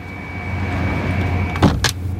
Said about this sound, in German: Es klopft. Schon halb acht.